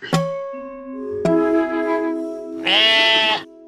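Sheep bleat several times in overlapping calls, including a low drawn-out baa and a loud, harsh, wavering bleat at the end, with no one speaking.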